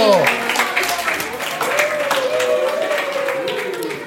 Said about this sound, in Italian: Buongiorno, oggi abbiamo qui con noi il signor Babbo Natale! Alta in scena! Grande applausometro!